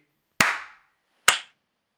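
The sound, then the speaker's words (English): Two sharp hand claps made to sync a recording in GarageBand, about a second apart, each a crisp bright smack with a short ringing tail that fades quickly. No talking, and silence between and after. “I'm gonna clap.”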